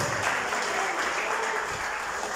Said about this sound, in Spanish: Solo por Noemí, déselo al Señor, fuerte ese aplauso.